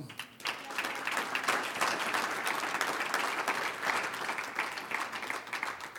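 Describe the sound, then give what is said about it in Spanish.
A crowd claps steadily for several seconds in applause to the Lord, a dense, even wash of many hands with no voices rising above it, holding at a fairly constant loudness throughout. “Un aplauso al Señor.”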